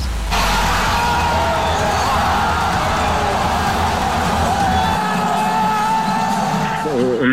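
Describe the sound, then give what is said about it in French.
A huge crowd at La Beaujoire stadium roars and cheers continuously after Florentin Pogba scores an own goal at the 60th minute, a dense wall of whoops, shouts and yells sustained loudly throughout, with no single voice standing out. “Le frère aîné de l'international français Paul Pogba, Florentin, vient de marquer contre son camp. La Beaujoire explose.”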